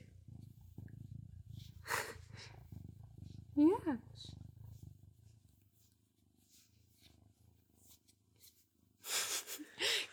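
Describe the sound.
A cat named Pim purrs, a low, steady, rhythmic rumble that lasts several seconds before fading, with a brief laugh and a short spoken word over it.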